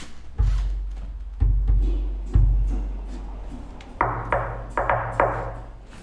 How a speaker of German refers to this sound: Klopft man einen fertigen Resonanzboden von oben nach unten ab, dann kann man die unterschiedlichen Frequenzbereiche bereits hören.